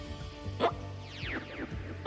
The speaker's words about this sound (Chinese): 熊宝宝开始打嗝，而且他每打一个嗝，身体就变矮十公分。熊宝宝一直打嗝，一直打嗝，一直变矮，一直变矮，最后终于变回原本的熊宝宝了。